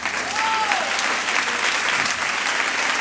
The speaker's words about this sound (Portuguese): Eu sei que você aplaudiu, né?